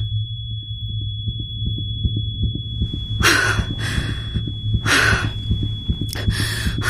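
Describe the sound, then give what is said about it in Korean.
A thin, steady high-pitched ringing tone runs through the whole clip like tinnitus, over a low pulsing heartbeat-like throb, with a few loud breathy gasps or sighs bursting in. “현관에 들어서는 순간 이명이 들린다.”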